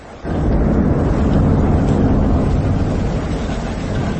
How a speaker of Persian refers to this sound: بیرون صدای ریزش باران و رعد و برق کولاک می کند